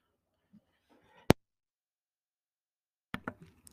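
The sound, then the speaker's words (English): A short, rough throat clearing made of a couple of raspy bursts near the end. It follows faint low murmuring, a single sharp click and a stretch of silence. “Sorry, I had to clear my throat.”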